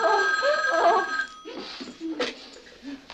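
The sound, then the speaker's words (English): An old-style telephone bell rings loudly and steadily for over a second, then cuts off as a woman answers, followed by a brief muffled voice and background shuffling. “And then the phone rings and she answers it and just fucking rips into this complete stranger's asshole.”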